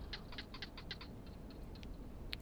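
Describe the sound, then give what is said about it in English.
Quiet, sharp clicking calls of barking geckos repeat in a quick series, then thin out to scattered single clicks, all set against a steady low rush of wind, in the Kalahari Desert of South Africa in the evening. “You can hear the winds blowing and the quiet call of the barking gecko.”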